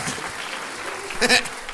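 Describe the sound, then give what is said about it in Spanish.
A short burst of applause, a dense steady crackle of many hands clapping, with a brief high-pitched vocal cry rising over it near the end. “Un aplauso para don con permisito que.”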